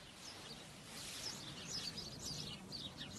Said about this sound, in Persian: صدای گنجیشگاه و خنده مرغای دریایی و وزوز حشره ها سکوت و سنگین تر